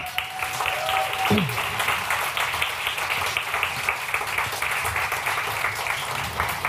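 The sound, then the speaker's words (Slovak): A crowd applauds Peťo Altov (Explo) as he comes to the stage to present an award category, with dense, steady clapping that holds at an even level for about seven seconds. A brief sustained tone slides downward near the start. “Explo a jemu by ste mohli dať tiež potlesk.”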